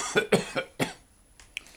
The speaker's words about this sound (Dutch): Zo, daar ben ik weer. Ja, lage hoest.